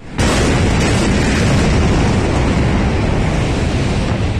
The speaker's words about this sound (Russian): В порту Бейрута в минувший вторник прогремело два мощных взрыва.